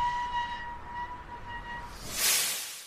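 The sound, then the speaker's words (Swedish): A train idles at a platform of Stockholm Central Station in Sweden with a steady tonal hum and rumble, then a loud burst of hissing air, likely brakes or doors releasing. “En man i ljusbrun bläser kliver av ett tåg på Stockholms centralstation.”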